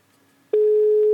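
After a brief quiet moment, a loud, steady single-pitched ringback tone of an outgoing phone call placed by the radio show Ringe Rap starts abruptly and holds unbroken to the end, with nobody speaking.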